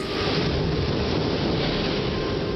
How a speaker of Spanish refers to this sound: Una fuerte tormenta sacudió la casa y el jardín. Fue una noche terrible.